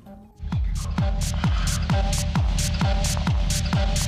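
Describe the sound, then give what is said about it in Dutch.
Loud, pounding techno with a heavy four-on-the-floor kick drum thumping steadily about twice per second, crisp hi-hats ticking on the offbeats, and a droning synth underneath, driving and relentless. “Oké, gaan we even naar een fragmentje luisteren. Deze act staat namelijk op zowel Paaspop als op Awakenings.”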